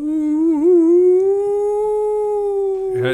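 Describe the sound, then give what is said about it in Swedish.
A person imitates a wolf howl: one long, sustained tonal call that wavers briefly, then rises slightly and holds steady for about three seconds, loud, ending with a short breathy release. “det ska ju ändå framkalla ett ylande”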